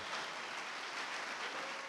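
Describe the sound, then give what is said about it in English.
An audience applauds the performers after a song, a dense, steady wash of many hands clapping that holds evenly for the full two seconds with no voices over it. “round of applause. Didn't they do amazing?”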